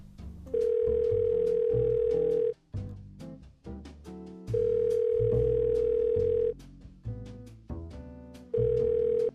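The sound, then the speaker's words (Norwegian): A loud, steady telephone tone sounds in three bursts, each about two seconds long with roughly two-second gaps, over a busy musical background. “Nå må jeg ringe inn, ikke sant.”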